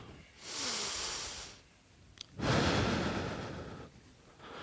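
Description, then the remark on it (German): A slow, deep breath drawn in with a soft airy hiss during a guided relaxation exercise, a pause, then a longer, fuller exhale, with another breath beginning at the end. “lehnt euch einfach mal zurück atmet mal tief durch, macht mal die Augen zu.”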